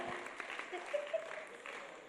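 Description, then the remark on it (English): A brief burst of audience applause, a dense, steady patter of many hands clapping at moderate loudness, with a couple of short whistle-like tones and faint voices mixed in. “Clap for the shepherd, man.”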